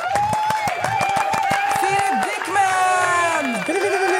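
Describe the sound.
An applause sound effect played in on cue: a crowd applauds with a steady burst of clapping, mixed with cheering voices and whoops, staying loud and dense for the whole few seconds.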